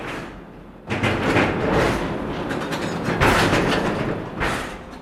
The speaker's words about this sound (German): Wie zum Beispiel die Fahrt mit der Kulibahn. das sind im Prinzip Bänke auf einer Transportplattform, wenn wir es mal einfach erklären, die durch den Stollen fährt.